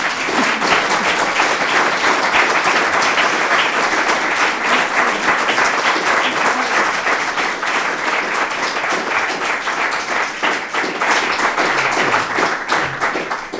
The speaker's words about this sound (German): Jetzt haben wir schon diesen wunderschönen Applaus gehabt.